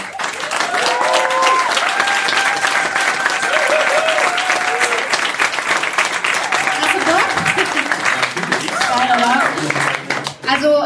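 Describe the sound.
A crowd applauds a guest loudly and steadily for about ten seconds, dense clapping while voices whoop and call out over it, fading briefly near the end.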